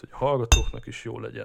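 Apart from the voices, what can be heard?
beer being poured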